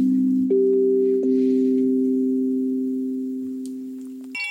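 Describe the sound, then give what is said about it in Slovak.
A shanti chime, a kind of wind chime, struck a few times, each note ringing out and lingering in a long, warm, humming sustain. Fairly loud, with no voices, and a brighter strike right at the end. “Toto je šanty zvonček, taká zvonkohra.”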